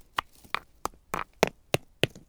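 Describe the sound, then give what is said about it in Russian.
A voice imitates stones clattering down a mountain slope as a small herd of deer climbs it, with a quick run of about eight sharp, dry clicks, fairly loud, spaced unevenly like stones knocking as they tumble. “И я начал смотреть и услышал звук, звук камней”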